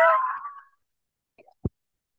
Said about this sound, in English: You're eating while I'm working.